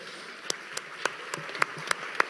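Light audience applause: a handful of sharp, distinct claps at an uneven, unhurried rhythm over a soft, steady background hiss, fairly quiet overall with no talking.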